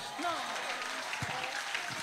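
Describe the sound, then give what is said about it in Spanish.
An audience applauds in a steady, dense wash of clapping that holds throughout, while a voice speaks briefly over the applause. “Si ese aplauso es para Dios, alguien está entendiendo hoy, aleluya.”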